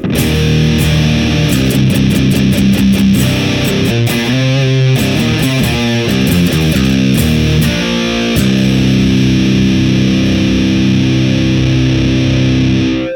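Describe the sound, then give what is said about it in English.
A heavily distorted electric guitar through a Sound of Justice Hizumitas fuzz pedal with the drive knob turned all the way up, loud and saturated, playing sustained thick chords with a quick run of choppy, rhythmic stabs in the middle. No voices. “that sounds like a drive to me, because here's all the way back up.”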